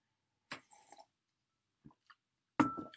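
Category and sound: household object, sipping tea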